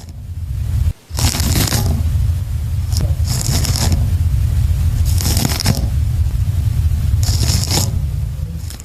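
Greatly amplified sound of a snail gnawing a pear: four bursts of gritty, crunchy scraping at irregular intervals over a constant low rumble, with no talking.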